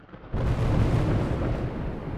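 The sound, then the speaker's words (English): Distant thunder roars in abruptly after a brief quiet moment, a deep, heavy rumble that holds steady and loud for about two seconds with no voices. “Thunder roared in the distance.”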